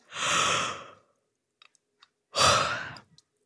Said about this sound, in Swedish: Det är att du går in i ett rum där ingen annan är och gäspar ha ett gäspmaraton. Testa nu när jag pratar.